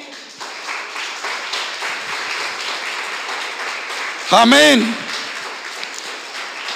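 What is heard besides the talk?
audience applause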